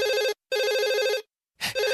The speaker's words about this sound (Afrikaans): Ja, ja, uh, dit is ons eerste inbeller. Uh, laat ek die telefoon antwoord.